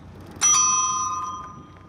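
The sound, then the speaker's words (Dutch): A single bright electronic bell ding from an S5 e-bike, rung with the largest button at the top left of the handlebar, its metallic tone sustaining and slowly fading over about a second and a half. “Waarbij eh, de knop, de grootste knop linksboven de bel is.”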